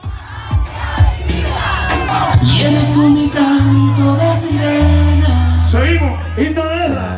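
A large crowd of protesters chants a slogan together in the street, voices rising in loud, rhythmic unison with shouts layered over a dense, continuous roar.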